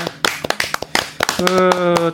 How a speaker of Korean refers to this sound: 박수 한번.